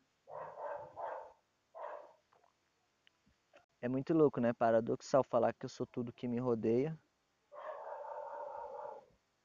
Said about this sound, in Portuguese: Obrigado, o cachorro está latindo.